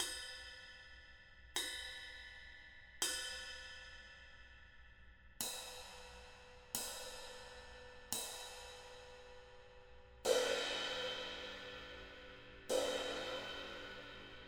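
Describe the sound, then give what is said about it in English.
A ride cymbal bell struck eight times at a slow, uneven pace, each clear metallic ping ringing out and decaying. The last two hits are louder and brighter. No voices. “So here's the bell.”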